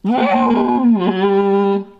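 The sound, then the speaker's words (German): A toy horn (Tröte) blares for about two seconds in one sustained, buzzy honk that dips in pitch midway and then holds steady, loud, with no talking over it. “Ich soll, also gut, der Abschlusströter.”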